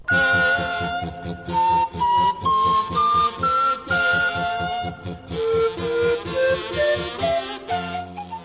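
An instrumental piece on homemade wind instruments, opening side B of a vinyl record: whistly, reedy tones step through a melody over a steady, pulsing low drone, loud and continuous with no voices.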